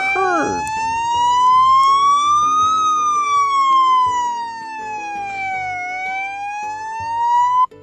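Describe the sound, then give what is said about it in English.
A police car siren wails steadily, its pitch sliding slowly up and down in a long rising and falling sweep, loud throughout before cutting off abruptly at the end. “Okay, so here comes the police. Can you hear that”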